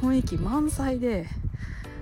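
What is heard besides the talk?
crow cawing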